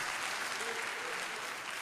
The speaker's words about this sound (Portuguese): Sabe o que, é que acontece nas palmas? Muitas vezes nós acostumamos a ter palma depois dos cânticos.